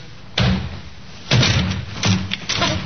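A police sergeant forces a door open: four heavy, booming blows land at uneven intervals, each with a short rumbling decay, and no one speaks.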